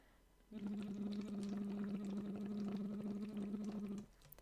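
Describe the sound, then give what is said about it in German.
A steady, voiced bubbling into water through a voice trainer, a hummed tone with gurgling bubbles blown through a tube, lasting about three and a half seconds, fairly loud, with no talking. “ich habe dem Alex gerade eins vorgeblubbert”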